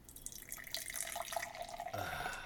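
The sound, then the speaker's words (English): Reddish-brown Scottish ale pours steadily from a just-opened crowler into a glass, a continuous gurgling splash that deepens in pitch as the glass fills, with no talking over it. “And the pour.”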